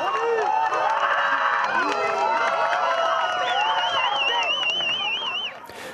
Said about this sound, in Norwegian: Folkemengda jubler. De jubler fordi fem kvinner har turt å trosse politiet nå ble kvinnene arrestert fordi de tok med seg et banner og klatra opp på en bygning ved Taksimplassen i Istanbul.